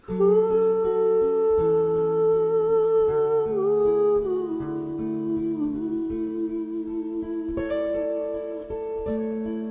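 A recorded song plays at a steady, full volume, with sustained melodic tones and a gently shifting harmony throughout, and no one talking over it.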